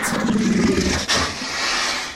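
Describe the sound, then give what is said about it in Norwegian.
A bear roars angrily, a loud, rough growling bellow that starts deep and throaty and stays strong for about two seconds, with no one talking over it. “Bjørnen okay. blir illsint.”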